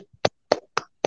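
Four sharp hand claps made as an ASMR sound, in a steady, evenly spaced rhythm, each one a brief crisp smack with a short tail, with no talking around them.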